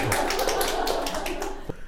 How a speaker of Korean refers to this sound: 우리 좀 박수로 좀 환영할까요? 네.